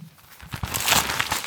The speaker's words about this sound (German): Es raschelt.